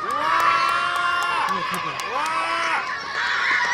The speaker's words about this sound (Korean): 뒤에서가 아니라 앞에서 3등. 야 이것은 고마세리 인간 승리기라. 야 모두 모아놔 박수.